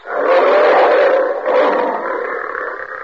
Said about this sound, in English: As the lion says,